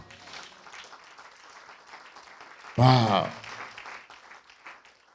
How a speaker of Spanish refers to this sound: Aleluya. Un aplauso al Señor.